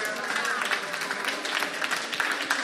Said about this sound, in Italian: Facciamogli un applauso perché è morto.